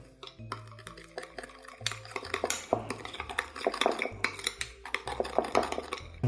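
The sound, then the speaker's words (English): A utensil stirs sesame oil, sugar and kosher salt together in a bowl, giving a steady run of scraping, clinking strokes against the sides, fairly loud, with no talking over it. “Stir those things together.”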